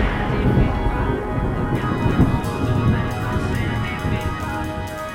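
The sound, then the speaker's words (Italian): A steady, heavy rumble of storm noise with deep thunder-like roll and gusting wind texture, fairly loud and continuous throughout, with no voices. “Poi la pioggia, si sa, è un po' la mia materia Potrei fare qualcosa per rendere meglio il clima Dati da fare Poi vediamo un bel fulmine”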